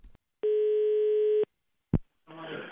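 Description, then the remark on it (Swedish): A single steady telephone ringing tone holds for about a second, then a click as the line picks up, followed by a brief burst of voice on the phone line. Radio station P4 Kristianstad is calling an 81-year-old in Hässleholm about storm Evert. “ringde av en lite speciell anledning upp till en 81-åring från Hässleholm angående just stormen Evert.”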